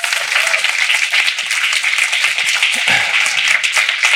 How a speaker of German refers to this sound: Ich bitte um einen ganz, ganz kräftigen Applaus